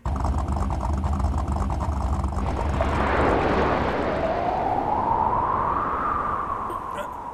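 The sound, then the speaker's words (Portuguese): A boat engine rumbles steadily, then surges with a rushing roar and a rising whine as the boat pulls away, staying loud throughout with no voices. “libera o barco. E se prepara que essa viagem vai render.”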